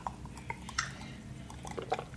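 Quiet, close-up sipping from a glass: a few small wet slurps and soft liquid clicks scattered over a couple of seconds, with no one talking.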